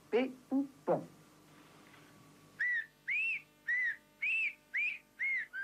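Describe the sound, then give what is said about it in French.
A Béarn shepherd whistles a series of short, modulated tones in a steady rhythm in the whistled language of Béarn, after a few brief vocal sounds at the start; clear. “Il a alors invité deux bergers à Paris afin d'étudier cette langue sifflée, la décortiquer, l'enregistrer.”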